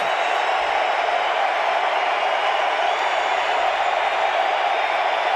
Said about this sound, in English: Crowd roaring. Kicks it away off to the right and slides through on the right side to put Washington ahead 17 to 15.